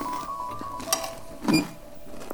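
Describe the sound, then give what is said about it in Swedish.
Crunching from someone biting into a crisp chanterelle sandwich, with two short crackly bursts over a low background hum and no talking. “Ni hör vad det knastrar här.”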